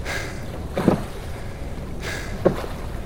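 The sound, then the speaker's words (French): Two splashy paddle strokes about one and a half seconds apart as rowers paddle a boat rhythmically through ice and freezing cold past Trois-Rivières, Québec, over a steady low rumble of water and wind, with faint breathy rasps of heavy breathing in between. “Le bruit des pagaies ne suffit pas à masquer la violence de notre respiration, et c'est quelque chose d'effrayant.”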